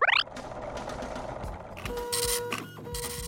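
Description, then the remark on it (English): A riddle machine starts up with a quick rising electronic chirp, then clinks and whirs into steady mechanical churning with humming tones and bursts of noise, fairly loud, no voices. “I hear that familiar clink and whirl of the riddle machine firing up.”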